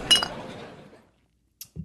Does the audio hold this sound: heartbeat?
no